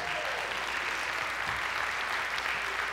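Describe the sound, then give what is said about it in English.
A crowd applauds steadily as a hand clap of praise to God for the overturning of Roe versus Wade, many hands clapping at once in a dense, continuous wash of sound that stays loud and even for the full few seconds, with no talking over it. “Come on, give God a hand clap of praise for it.”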